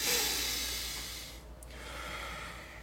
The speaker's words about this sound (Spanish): Por ejemplo, ahorita que estoy conversando y estoy hablando con ustedes, yo no estoy respirando profundamente, pero si me paro un momentico y respiro